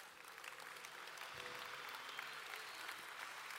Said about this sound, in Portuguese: Dê mais um aplauso bem forte ao Senhor.